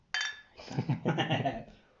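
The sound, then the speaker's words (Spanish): Glasses clink together once in a bright, ringing toast, the chime lingering briefly before several voices start talking over it. “Salud, salud. Salud.”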